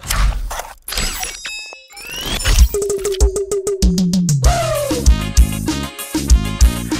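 After a brief burst of noisy, crashing effects and a rising sweep, a short upbeat music track from a music video kicks in with a steady thumping beat, a bouncy bass line and a bright keyboard melody, with no voices.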